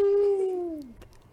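A single short wolf howl sound effect, a clear sustained tone that slowly slides downward in pitch and fades out after about a second, fairly loud with no talking.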